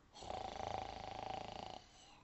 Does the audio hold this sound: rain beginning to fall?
no